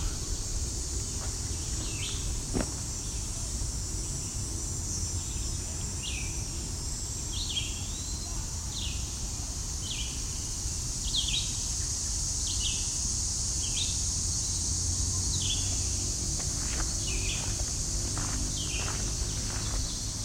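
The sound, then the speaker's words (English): At Caleb's Walk, a red-eyed vireo sings short, repeated phrases every second or so, set against a loud, steady wall of cicada buzzing, with soft footsteps and low rumble underneath. “Still cicadas, but there's birds too now. It's red-eyed vireo.”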